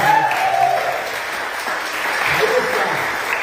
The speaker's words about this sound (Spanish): Dese un aplauso usted también. Este aplauso se, escuchó un poquito flojo. A ver, un aplauso, gloria al Rey, Señor y Señor.